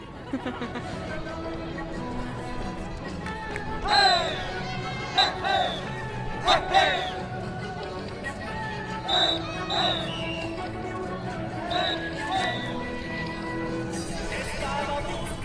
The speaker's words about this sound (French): Ah c'est la danse bolivienne qui recommence.